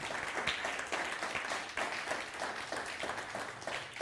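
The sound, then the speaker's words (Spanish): Steady audience applause fills the whole stretch, a dense wash of many hands clapping at an even level with no voices standing out. “Denle un fuerte aplauso al Hashem, al Todopoderoso.”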